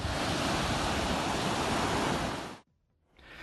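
Loud, steady roar of sea waves crashing on the shore at Alanya, Antalya, Turkey, full, cutting out abruptly for a moment before the surf noise rises again, in cold, rainy weather while a couple of Russian tourists swim among the waves. No voices.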